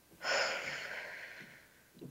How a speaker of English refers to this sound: So, in order to get the most out of our time together today, I want to encourage you to take a deep breath in through the nose, all the way to your toes.